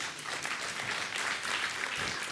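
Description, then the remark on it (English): An audience breaks into steady applause, a dense, even wash of many hands clapping at once with no single claps standing out, sustained at a fairly constant level throughout. “I, I think I understand what's behind it because you, you, want, you want truth to be told in our culture, but you know who you should clap for? Our teenagers and our young adults.”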